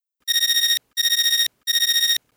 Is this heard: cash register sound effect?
no